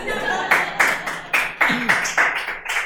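A crowd claps in a steady rhythm, about four sharp, loud beats per second, over a continuous background wash of crowd noise, with no clear speech.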